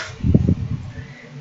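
An electric fan hums steadily in the background of a hot studio with the window open, a constant airy whir that runs the whole time, with a brief burst of low rumbling near the start.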